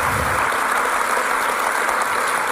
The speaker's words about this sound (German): Cool, schön. Gebt ihnen doch einen Applaus.